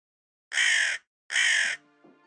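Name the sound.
crows cawing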